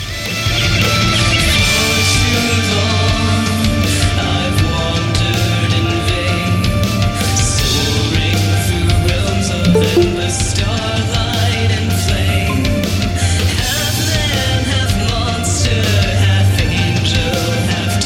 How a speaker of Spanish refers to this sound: Ya le digo Escuchen lo nuevo que está saliendo en el mundo. En este caso, metal sinfónico desde Gran Bretaña.